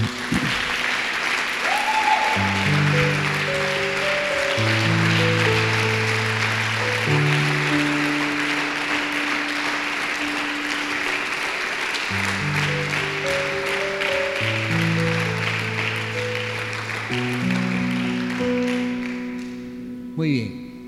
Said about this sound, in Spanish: En el nombre de Jesús, un fuerte aplauso al Señor.